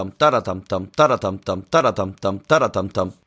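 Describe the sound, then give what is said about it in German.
A voice rhythmically imitates a drum pattern to demonstrate a rhythm, beatboxing a steady, repeating groove of short voiced bursts in a fast loop, clear with no other sounds. “Du solltest mehr äh, Beatboxing machen.”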